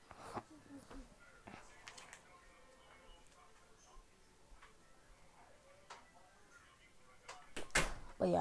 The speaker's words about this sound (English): Here, close my door.